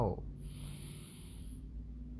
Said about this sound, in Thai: โอเค ทำพร้อมกันครับ พร้อมแล้วหายใจเข้า หายใจออก หายใจเข้า